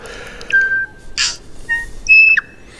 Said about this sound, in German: Und das war mein Urlaubsvogel. Jeden Morgen, egal wo ich war, gab es mindestens einen Tui, der die Luft